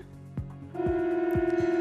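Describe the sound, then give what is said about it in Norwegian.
An alert signal from Norway's national emergency warning system, which relies on the FM network: a steady, loud electronic tone begins after a brief pause and holds without wavering, with a few dull thumps underneath. No voices. “Og denne lyden kan det bli slutt på. Det nasjonale varslingssystemet vil ikke lenger fungere når FM-nettet blir skrudd av neste år.”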